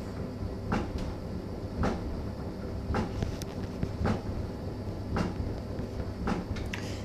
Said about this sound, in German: Es ist halt so, dass also hier ist halt der Trockner an, Wäschetrockner an und das ist halt das Problem.